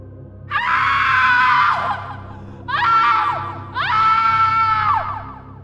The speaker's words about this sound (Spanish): Con los ojos bien abiertos y con una expresión de terror en la cara, señaló hacia arriba, hacia el árbol más alto, y después a los dos árboles aledaños, de donde salió un grito aterrador que evitó que me moviera hasta que se desvaneció por completo.